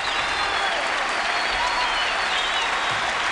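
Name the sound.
crowd applauding and cheering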